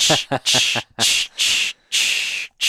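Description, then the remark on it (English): A person vocally imitates a deer pawing the ground while making a scrape, with about six rough, breathy scraping bursts in an uneven rhythm, fairly loud, some carrying a bit of voiced tone. “like it's scraping, like deer's like making a scrape, oh.”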